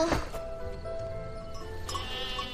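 A sheep bleats in a drawn-out, wavering cry, clear, with a faint background hum and no one speaking.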